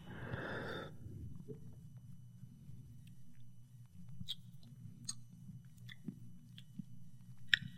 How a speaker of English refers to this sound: So at first glance, I take a sip off this stupid glass, and what I get is like something that tastes.